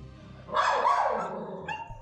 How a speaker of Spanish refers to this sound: Oh, es un perro ladrándole un sillón. A un sillón que está vacío. Dos perros. el otro, está como llorando. Mira. Aúlla.